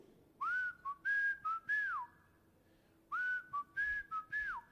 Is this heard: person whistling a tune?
yes